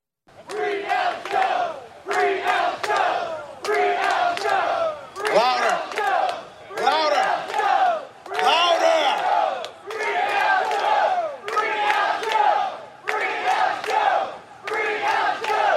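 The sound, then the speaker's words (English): A large crowd in Austin shouts an Alex Jones battle call in unison, loud, repeating it in rhythmic bursts about every second and a half with brief gaps between each roar. “Let's give him one more live Alex Jones battle call right here for the entire city of Austin to hear.”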